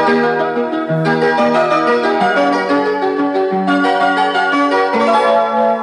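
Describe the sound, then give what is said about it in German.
A Japanese train station jingle plays loudly on its own, a bright bell-like melody stepping through short notes in a steady, cheerful rhythm for several seconds, with no talking. “Oh, und sagen wir mal so, es ist, ähm, insofern kann ich doch ein bisschen jingeln. Wir fahren mal kurz mit der Japan-Bahn.”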